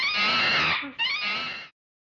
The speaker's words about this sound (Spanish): Gorila. Al gorila le gusta comer bananas. Gorila.